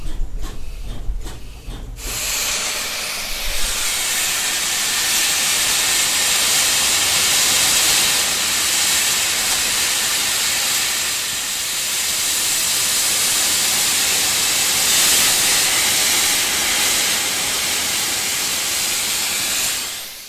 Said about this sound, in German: Erzählst du mir noch kurz, was du gerade gemacht hast? Der Lärm? Ich habe jetzt äh, mehr oder weniger im Stillstand Dampf auf die Zylinder gegeben, mhm. um einfach die Zylinder anzuwärmen. Dass schon mal eine gewisse Wärme in den Zylindern ist.